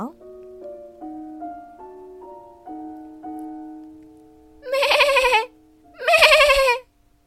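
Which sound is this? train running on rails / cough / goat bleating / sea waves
goat bleating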